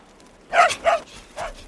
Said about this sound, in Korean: 그때였다. 뒷집의 멍멍이가 대문 앞에서 나를 보며 크게 짖었다. 멍멍이 다리가 눈에 푹 파묻혀서 몸통만 보였다.